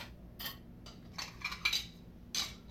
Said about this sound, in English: Jane and Lydia loaded the dishwasher.